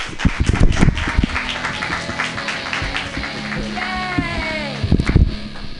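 An audience at a live show applauds a performer at the end of a set, steadily throughout, a dense wash of clapping with a few sharper claps near the start and end, and a voice whoops or cheers above it partway through.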